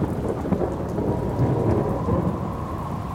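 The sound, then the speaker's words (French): A summer thunderstorm with steady heavy rain and a continuous deep rumble of thunder rolling underneath, loud, with no voices. “C'est une tempête, mais une tempête d'été.”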